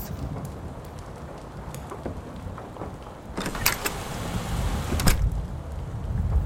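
Steady rain falls with a dense, hissing wash, scattered drops tapping sharply on a surface; the downpour grows a bit heavier partway through. No one speaks.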